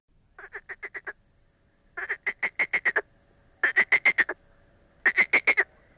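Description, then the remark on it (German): A frog, its thick neck stretched out of the water, croaks in four quick bursts of rapid, rattling pulses, each burst a string of five to seven clicks, fairly loud, with brief pauses between and no talking. “Da erblickte sie einen Frosch, der seinen dicken, hässlichen Hals aus dem Wasser streckte.”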